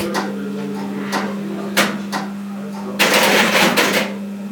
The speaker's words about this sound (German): Und da wurde die neue Fahrstraße eingestellt. Ja, das ist das.